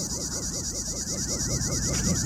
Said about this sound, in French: Qu'est-ce que c'est, Papette Des cigales. Ah, des cigales.